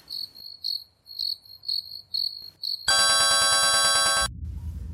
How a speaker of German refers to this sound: Dieser Pieps startete jeden Arbeitstag.